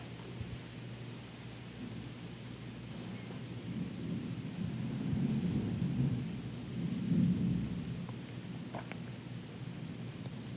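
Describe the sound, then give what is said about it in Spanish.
Steady rain hisses throughout, with deep rolling rumbles of thunder swelling in the middle. No voices are heard. “y descanso mi mente en la contemplación de la lluvia.”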